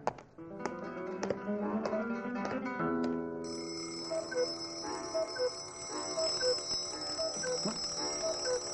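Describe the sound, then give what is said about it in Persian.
An alarm clock goes off loudly, starting with a few metallic clicks and chimes before settling into a sustained, shrill ringing over a repeating tinkling melody, with no voices. “شماته رو میگم مگه کار میکنه؟”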